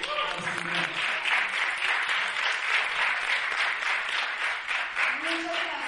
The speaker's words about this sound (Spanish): Para ella un fuerte aplauso y bendito.